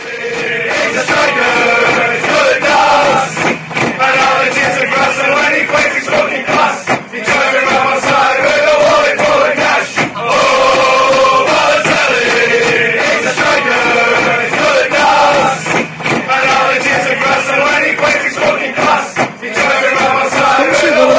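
A large crowd of Manchester City football supporters chants together in a stadium, loud and sustained, their voices rising and falling in repeated sung phrases that fill the whole stretch without pause.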